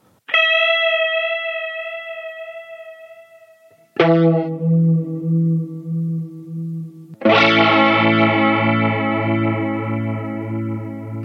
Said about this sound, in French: Alors on commence par un effet euh, très simple, qui s'appelle le sine chorus, qui est juste la reprise de la voix principale avec une modulation sur la base d'une sinusoïde, plus ou moins rapide, plus ou moins ample.